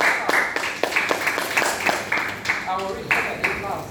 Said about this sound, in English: Ladies and gentlemen, big applause to the, for the installation of the excos. Welcome aboard. big applause.